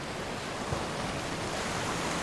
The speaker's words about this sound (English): there was just a steep drop off to the ocean crashing on the giant rocks